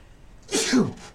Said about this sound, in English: sneeze, hold on.